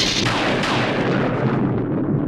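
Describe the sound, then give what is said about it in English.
A loud thunderclap bursts in at full strength and rolls on as a heavy, sustained rumble, its crackling upper edge gradually fading while the deep boom carries through. No voices. “What, no thunder for her?”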